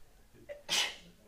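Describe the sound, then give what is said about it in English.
A single sharp sneeze bursts out during a Bible reading, preceded by a brief intake of breath, moderately loud, with no talking around it. “bless you”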